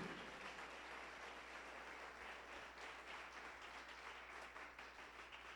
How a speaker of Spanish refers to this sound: ¿Cuánto le damos la gloria a Dios? Dale el aplauso.